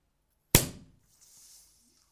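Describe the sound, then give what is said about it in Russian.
A single sharp pop of a champagne cork bursts out of silence and quickly decays, followed by a soft hiss of fizzing foam. “в прошлом году у нас, по-моему, выкатилось, э, вылилось, по-моему, шампанское”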